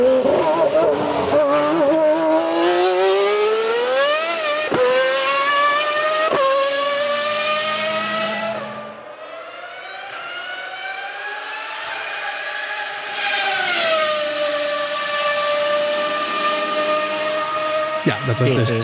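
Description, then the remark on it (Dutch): A high-pitched mid-1990s Ferrari V12 racing engine, Jean Alesi's Ferrari at Monza, screams at full speed, its dense harmonic wail rising and falling through gear changes and a passing swell, loud, with no voices over it. “Want de V12, Ferrari V12, vooral uit de midden jaren 90, dat is ook mijn favoriete motor ooit.”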